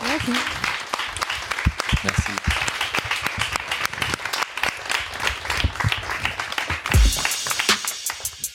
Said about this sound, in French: Merci à vous trois. Merci à vous tous. Vous pouvez les applaudir. merci.